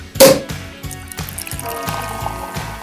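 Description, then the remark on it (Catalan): A drink pours into a glass after a sharp clink at the start, the liquid gurgling steadily for a few seconds over a soft, steady rhythmic thumping in the background. “Jove xef, porti whisky amb 15 glaçons d'hidrogen, coi! Ah, i unes copes de cava.”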